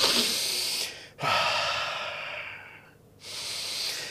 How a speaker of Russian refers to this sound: И это вот он, дыхание.